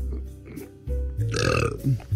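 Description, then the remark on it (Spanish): A loud, drawn-out burp rumbles and gurgles for over a second, deep and throaty with a rough, bubbly texture, followed by a couple of brief low vocal sounds. “Yo ya cumplí agua de Provecho”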